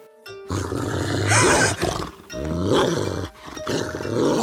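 Deep, menacing animal growls and roars rumble in several long, loud bursts separated by brief pauses, harsh and guttural with no talking.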